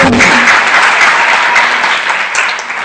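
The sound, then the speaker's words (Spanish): A crowd claps loudly and steadily for about three seconds for the diamonds of the company, a dense, continuous wash of many hands that eases off slightly toward the end. “Así que por favor, un fuerte aplauso a los diamantes de la compañía de”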